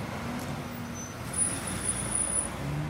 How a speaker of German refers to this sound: Da vorne ist Lidl. Da gehe ich jetzt einkaufen. Also ich schlänge mich nicht gerne so zwischen Autos durch, die noch einen Motor anhaben. Da warte ich lieber.